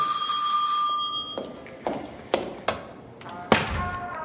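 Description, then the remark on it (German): A bright electric doorbell rings for about a second and fades as police detectives call at a house, followed by a few dull thumps and taps, like footsteps or a door being handled. “Dann läutet sie mal.”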